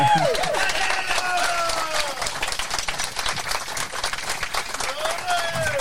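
Steady, dense applause from a crowd that runs loud and unbroken for about six seconds, with a few sliding whistle-like cheers rising above the clapping.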